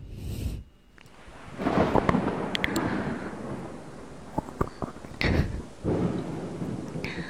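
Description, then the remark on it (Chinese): A deep, rumbling roll of thunder builds and lingers for several seconds, with sharp crackling bursts near the end over a steady hiss of rain. No one speaks. “姐姐真的是口嫌体直呢，一打雷就往我怀里钻。”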